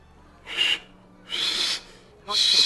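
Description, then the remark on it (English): A voice imitates a little bird trying to whistle through its beak, sounding like a teapot: three harsh, breathy high screeches with a thin whistling tone inside, each under half a second, separated by short quiet gaps. “Little Bird tries to whistle, but through the beak and weird clawed, like little hands, it just comes across as.”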